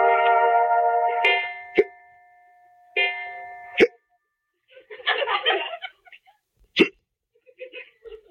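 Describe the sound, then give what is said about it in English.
Three sharp, abrupt hiccups spaced a second or two apart, each a sudden loud gulp, between sustained musical tones and a short burst of breathy, voiced sound. “…, do you have the hiccups?”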